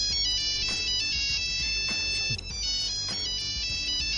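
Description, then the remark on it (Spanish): The classic Nokia mobile phone ringtone plays loud, a bright electronic melody of quick beeping notes repeating steadily with no voices over it. “Hubo una época en la que lo que había que tener era un teléfono Nokia, no Apple, ni, Samsung, ni Xiaomi, ni Huawei.”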